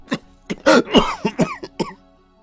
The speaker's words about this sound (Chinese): 说到后面剧烈的咳嗽起来。